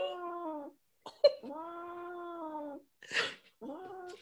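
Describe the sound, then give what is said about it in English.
A male cat dreaming in his sleep lets out long, wavering moans and yowls, broken by a short snort and a breathy, sneeze-like burst, fairly loud with no talking. “He's making noises in his sleep.”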